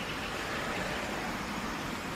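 passing cars

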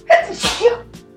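sneeze

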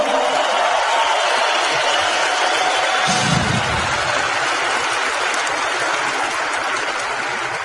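audience applause

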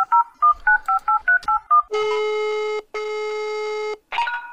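short jingle

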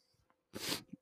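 a person sneezing

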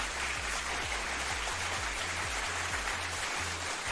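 audience applause

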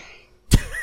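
cough

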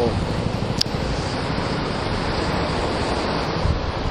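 wind noise

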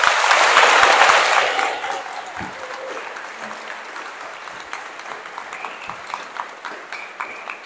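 audience applause

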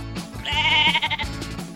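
sheep bleating

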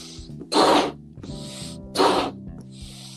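blowing up a balloon

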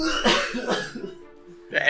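cough in the background

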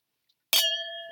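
clinking drinks together

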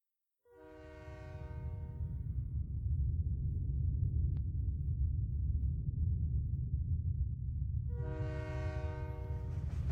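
train passing with horn

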